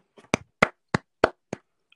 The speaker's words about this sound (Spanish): Un aplauso nuevamente. De pie.